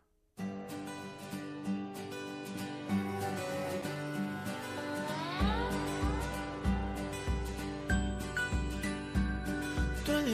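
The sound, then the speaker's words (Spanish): Gentle devotional song about the Holy Spirit, instrumental intro: sustained keyboard chords and sliding tones, joined about halfway by a steady, even bass-drum beat. Full, with no singing yet. “Y ahora vamos a poner una canción que habla del Espíritu Santo, que es muy bonita.”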